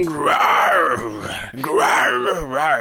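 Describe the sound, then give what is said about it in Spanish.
A mobile phone ringtone of zebras roaring while mating, apparently voiced by a person: two long, loud, wavering moaning groans that rise and fall, with a brief break between them. “recibirás en tu teléfono el auténtico sonido de cebras rugiendo de amor.”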